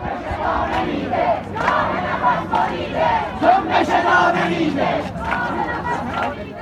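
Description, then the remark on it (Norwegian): A large crowd in the streets of Iran chants slogans against the regime, many voices shouting in a loud, steady rhythm with rising and falling bursts, like a street protest in full swing. “Og eh, det folk går ut i gatene og eh, roper nå, er altså slagord mot regimet.”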